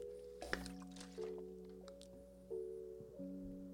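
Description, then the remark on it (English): Liquid sounds of a person getting some water, like water being poured or gulped, with a few abrupt shifts in tone and small splashy clicks. No one speaks. “Let, let me get some water here, okay?”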